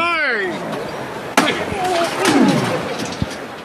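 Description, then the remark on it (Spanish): The lifting (levantada) of a stopped Holy Week procession float (paso) of a brotherhood in the street: a single sharp knock rings out over murmuring voices, followed by a swell of crowd noise and another dull thud near the end. “Efectivamente, ahora estamos escuchando la levantada.”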